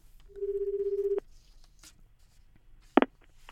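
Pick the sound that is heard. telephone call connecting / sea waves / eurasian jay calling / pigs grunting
telephone call connecting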